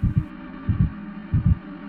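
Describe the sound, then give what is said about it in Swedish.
A heavy heartbeat pounds in a steady lub-dub rhythm, three deep double thuds at an even pace. The low, muffled beats are loud and heard alone, with no talking. “Jag började gråta i panik när jag kände någonting slå i mitt bröst.”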